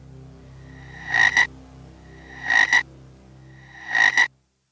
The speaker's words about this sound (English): It's just a normal frog, um, but I'll open the window and see if he wants to go out.